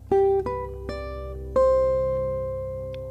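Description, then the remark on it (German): A sustained musical drone tone, switched back on, with several soft attacks in the first second and a half, then one steady, harmonically rich pitch held and slowly fading. No one speaks. “Moment, da muss ich den Drohnen nochmal anmachen.”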